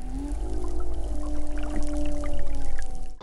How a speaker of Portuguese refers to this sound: Um som raro e difícil de captar. Pesquisadores registraram o canto de uma baleia jubarte fora de época no Espírito Santo.